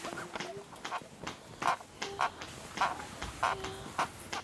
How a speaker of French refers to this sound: C'est le bruit des peaux qui se frottent, des bassins qui s'entrechoquent, des draps qui bruissent, et même du lit qui grince.